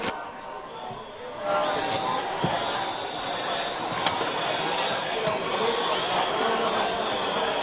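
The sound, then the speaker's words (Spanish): A crowd shouting "tongo" outdoors in the park of Santa Catalina, many voices merging into a dense, steady roar that holds its loudness throughout, with a few brief sharp knocks cutting through. “Bueno, la gente sigue gritando tongo en el parque de Santa Catalina.”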